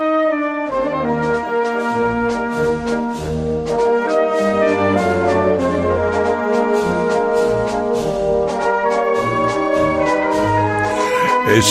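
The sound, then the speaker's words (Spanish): A loud brass band plays a lively march-like paso doble from Valencia, Spain, rich sustained horn chords over steady percussive beats, continuous throughout with no voices. “este es un paso doble hermosísimo.”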